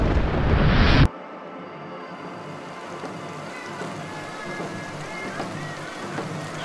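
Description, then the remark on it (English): A loud, dense rumbling burst lasts about a second and cuts off abruptly, followed by a steady, moderate hiss of falling rain that continues evenly to the end. “Seeing this victory, the remaining medicine men sang their sacred songs, and rains came to extinguish the fires.”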